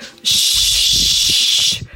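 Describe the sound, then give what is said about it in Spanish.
A voice imitates white noise with one steady, bright hiss, like a long "shhh," holding for about a second and a half at an even, fairly loud level before cutting off. “Es un ruido, se llama white noise.”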